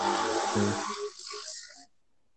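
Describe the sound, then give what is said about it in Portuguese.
A motorcycle passes with a low engine rumble and a broad rushing hiss that swells briefly, then trails off into quiet after about two seconds. No one speaks. “Não, cara, é uma moto, né?”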